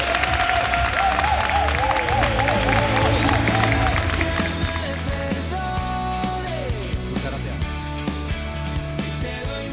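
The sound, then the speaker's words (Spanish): A live audience at the Fundación Cajasol claps steadily, a dense crackle of applause lasting the whole stretch, with tuneful music playing over it and a few voices mixed in. “Y bueno, muchas gracias al, este, al público presente por el aplauso, inmerecido totalmente,”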